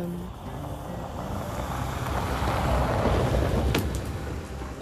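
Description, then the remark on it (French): A car passes by outside, its low rumbling engine and road noise swelling steadily to a peak, then easing off as it moves away; no one speaks. “Il n'y a jamais de voiture, il faut qu'il y en ait une pendant que j'enregistre.”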